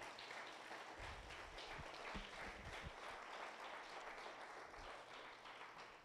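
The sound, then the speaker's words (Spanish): A crowd breaks into sustained applause given to God, dense overlapping claps filling the whole clip at a steady level, with a few louder low thumps early on and no voices rising above it. “Den un aplauso a Dios para que despierte al de al lado.”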